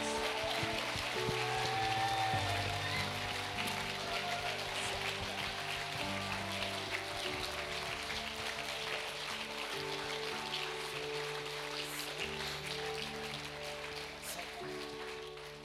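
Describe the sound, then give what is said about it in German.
An audience gives a big round of applause for Jesus in a steady, dense crackle of clapping that lasts the whole stretch, while sustained keyboard chords play underneath and the clapping fades slightly toward the end. “Lasst uns unserem Jesus einen riesen Applaus geben.”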